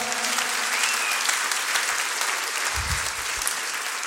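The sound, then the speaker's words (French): A concert audience applauds and cheers, a dense, steady wash of clapping from many hands that fills the whole stretch at an even loudness, with a brief whistle and a low thump along the way. “ben, du bruit, s'il vous plaît”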